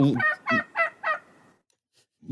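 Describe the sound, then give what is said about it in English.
A turkey gobble sound effect: a rapid burst of four warbling, rattling calls, loud, followed by a brief pause before another call begins. “gobble, gobble. There we go. I should have been playing that the whole time.”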